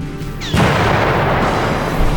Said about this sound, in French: Et le port s'embrasa. Les soldats, sur les quais, soufflés par l'explosion, furent tués instantanément ou projetés dans l'eau leur véhicule explosait.